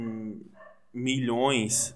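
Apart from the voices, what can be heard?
dog barking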